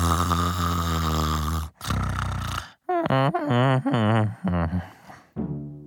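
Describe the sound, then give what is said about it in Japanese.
A voice imitates loud, throaty snoring for the captured Velociraptor character Loki in the story Dinosaur Heart: a long groaning snore, a rattling breath, then several wavering, mumbled vocal snores in quick succession as he talks in his sleep. “ベロキラプトルのロキはグーグーといびきをかきながら何やら寝言を言っているようです”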